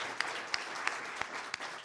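An audience applauds in a steady, dense patter of many hands, with a few sharper single claps popping out at a regular beat above the wash. No one speaks.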